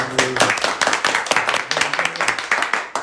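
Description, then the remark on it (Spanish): A short burst of applause for guests from a small group, dense overlapping claps keeping up steadily for about three seconds, with a faint voice briefly audible underneath at the start. “un aplauso para darle a los chicos.”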